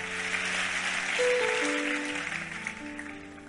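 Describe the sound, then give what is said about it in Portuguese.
A church audience claps steadily during a morning service, a dense, even wash of applause with sustained keyboard chords playing softly underneath. “Vamos aplaudi-lo?”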